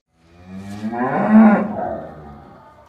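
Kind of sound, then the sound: animal, cow mooing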